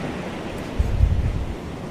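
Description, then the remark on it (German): A strong wave breaks on a pebble shore in the Dominican Republic, a deep rushing surge swelling and fading over about a second against a steady wash of surf and wind, with no voices. “Ich hab's nicht lauter gemacht, das war voll auf Anschlag, das war nur ein krasser äh, äh Wellenbrecher.”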